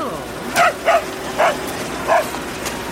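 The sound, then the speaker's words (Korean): A dog, Bori, barks four times in short, sharp bursts, with brief pauses between each bark over a low background hum. “뭐여? 보리 네 생각도 그렇다는겨?”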